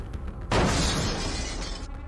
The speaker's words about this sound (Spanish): Sobresaltado busca el dispositivo móvil que siempre deja sobre el buró de su cama. En el intento derriba la pequeña lámpara que al caer hace un estruendo de vidrios rotos.